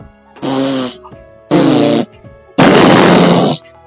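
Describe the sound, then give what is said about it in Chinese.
Three loud cartoon fart sounds in a row: two short buzzy, tonal blasts, then a longer, noisier raspy one. Each starts and stops abruptly, with no talking. They are the farts of Luoluo the little pig as it flies through the sky. “小猪罗罗一边在天上飞，一边放屁啊。”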